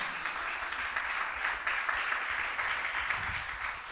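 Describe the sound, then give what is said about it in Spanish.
A church audience applauds Christ, clapping steadily for about four seconds, a dense, even wash of applause at constant loudness with no voices standing out. “Apláudale si le va a aplaudir a Cristo.”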